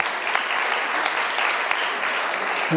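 An audience claps steadily for Benny, who ran the projector and the technology alone for the first time; a dense wash of many hands with scattered sharper claps standing out, sustained at an even loudness; a voice briefly starts at the very end.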